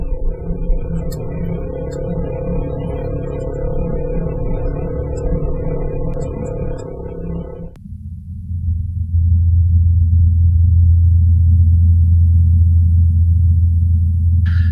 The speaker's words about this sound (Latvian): Jā, un tur vēl ir tas helikopterīts, tā kā drons. Arī to var dzirdēt, ka tas pārlido no vienas vietas uz otru.